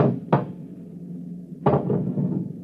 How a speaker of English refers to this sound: It's at the door. Get ready. It's opening the lock.